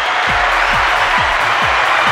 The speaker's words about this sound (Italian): Va bene, allora innanzitutto dobbiamo fare un applauso all'Italia.